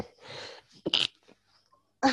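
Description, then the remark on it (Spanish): A drawn-out breathy intake builds into a single sharp, loud sneeze, followed by near silence and another abrupt burst of noise at the very end. “Ahí voy a estornudar.”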